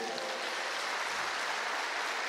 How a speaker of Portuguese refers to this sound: Dê um aplauso para Jesus aí.